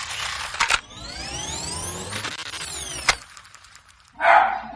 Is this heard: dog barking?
yes